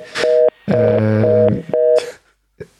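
Several loud electronic telephone beeps in an uneven sequence, some short and one longer, mixed with bursts of hissy line noise, caused by a connection problem on a phone call with a radio guest.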